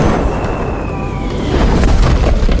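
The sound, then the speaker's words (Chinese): A huge meteorite falling from the sky onto Earth causes a massive explosion: a thin whistling tone slides downward over a heavy, roaring rumble, then the rumble swells louder into a sustained, crackling boom. No voices. “大约六千五百万年前那么久，有一天，天空中突然出现一颗超级大的陨石，掉到地球上，引起了大爆炸。”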